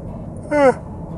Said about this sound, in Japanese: うんうんあくび申し訳ございませんここって今顎がなったの聞こえたかなそれはないか僕の耳だけ